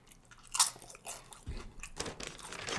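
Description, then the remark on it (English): Crisp crunching as corn tortilla chips, made with real corn masa flour and hand fried, are bitten and chewed, with a sharp bite early on followed by repeated irregular crunches and chewing sounds, no talking. “It says they're made with real corn masa flour.”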